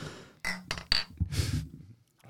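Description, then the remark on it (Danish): Glasses clink together a few times in a toast among a group of guys, fairly loud, with a short bright ring after the knocks, followed by some low rustling and breathy noise. “Ja, skål for pokker, gutter.”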